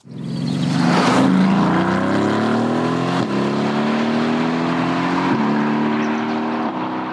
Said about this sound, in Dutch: Oké, nou straks rijden we in Mercedes uh, eh, uh, eh, AMG GTC Roadster met een dikke 4 liter V8 motor.